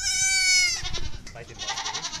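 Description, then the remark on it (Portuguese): A newborn dwarf goat kid, born a few hours earlier, gives one long, high, quavering bleat, followed by softer shuffling and rustling noises in a small stable on a dairy farm. “E com o balir da cria da cabra anã fica para trás a exploração leiteira da Agromancelos.”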